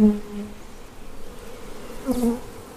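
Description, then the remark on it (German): A steady drone of honeybees buzzing around four wooden hive boxes in the park of Schloss Friedenstein in Gotha, a continuous hum with a few individual bees rising louder as they fly past, no voices present. “Wer oben auf dem Hügel von der Stadt kommend links um das Schloss herumgeht, sieht und hört sie gleich. Die Gotha Schlossbienen, die in vier Holzkisten zu Hause sind.”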